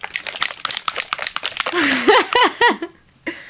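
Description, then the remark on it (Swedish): A plastic sunscreen bottle being squeezed: crackly, squishy squelches, then a few squeaky, sputtering bursts of air and lotion forced from the nozzle, loud and with no one talking. “De låter så här.”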